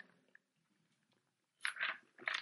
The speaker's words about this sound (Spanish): Disculpen. le di un trago al agua porque si no se me secaba la garganta.